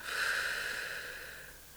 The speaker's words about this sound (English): So breathing in and breathing out.